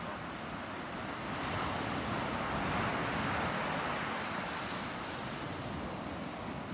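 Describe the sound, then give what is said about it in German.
Steady ocean surf washing onto shore, a broad continuous roar that swells slightly in the middle, with some wind in the background and no voices. “Jetzt lässt du deinen Blick streifen und kannst über ja, das Meer mit seinen wunderschönen Wellen schauen und siehst den Horizont mit einem wunderschönen blauen Himmel.”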